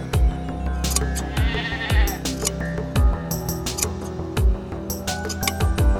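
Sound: sheep bleating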